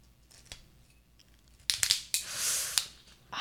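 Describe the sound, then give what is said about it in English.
A screw cap twists off a bottle of 13% alcohol wine: a burst of sharp metallic clicks and crackles as the seal breaks, then a brief gritty scrape and a final click, with no talking. “We're going to crack it now.”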